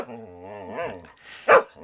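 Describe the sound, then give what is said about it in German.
A dog makes a drawn-out, whiny growling vocalization, then lets out one sharp, loud bark, with no one talking. “Und durch Sie habe ich heute auch gelernt, dass das Leben eines Hundes auch nicht immer einfach ist.”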